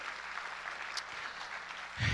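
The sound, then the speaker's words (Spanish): An audience applauds steadily, a dense crackle of many clapping hands holding an even level throughout, with a slight swell in loudness right at the end. “se dice un aplauso porque hoy se está cumpliendo la palabra.”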